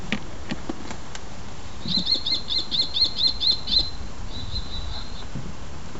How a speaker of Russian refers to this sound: Как кричит пустельга, ты знаешь? Вообще не представляю. Сейчас узнаем.